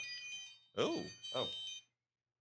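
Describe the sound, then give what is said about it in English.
A thin, high-pitched electronic alarm from a smartwatch chirps steadily for a couple of seconds, then cuts off, while a voice lets out two short exclamations over it. “That, was your watch.”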